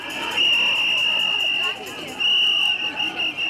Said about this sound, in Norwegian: Nå, på denne regntunge kvelden i Istanbul, bruker de stemmen sin igjen og fløyter i natten for å varsle om kvinners situasjon i Tyrkia.